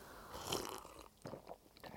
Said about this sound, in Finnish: Ää, parkkihalliin sopis vissiin noutokahvit. Eli no. ryystetäänkö semmoista? No ryystetään. Kippis. Kippis.